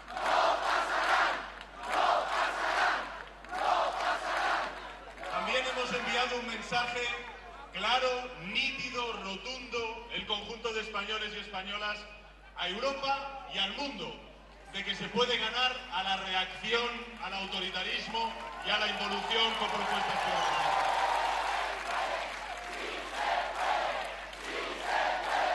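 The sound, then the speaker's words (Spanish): A large crowd of PSOE party members chants rhythmically in unison outdoors on Calle Ferraz, with loud celebratory cheering and shouting swelling throughout, the massed voices sustained and dense with no single speaker standing out. “Esa calle Ferraz, tantas veces vacía, sin nadie, hoy eh, los militantes se han tomado la revancha.”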